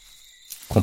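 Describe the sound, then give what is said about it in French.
A steady, high cricket trill hums faintly for a moment before a louder, lower frog croak, a chorus of frogs and crickets on a cool night. The whole snippet is very brief. “Le concerto des grenouilles et des criquets berce la nuit fraîche.”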